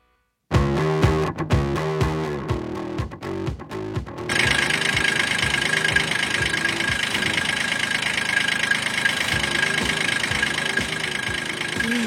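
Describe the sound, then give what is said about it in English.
A tractor engine runs, starting with a slow, uneven chugging knock before settling into a louder, steady rumble with a hissing roar layered on top. “Well, car sounds. I caught myself. Tr- tractor sounds. Tractor sounds.”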